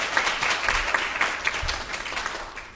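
Sustained applause from an audience at a church worship service, a dense crackle of many hands clapping steadily at a fairly loud level throughout, with no voices heard over it.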